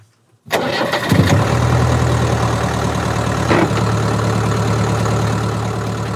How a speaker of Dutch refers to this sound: Lekker hè? Lekker ratelende diesel. Ja. Het is nog redelijk beschaafd. Ja. Ik zie wel gewoon mooie zwarte wolken eruit komen.